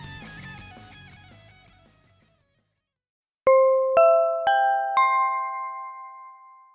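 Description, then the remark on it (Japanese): Music fades out into a short silence, then a loud, clear in-store announcement chime rings four bell-like notes in steady succession, each tone lingering and overlapping as it slowly decays. “館内放送に合わせて放送しますので聞いてください。”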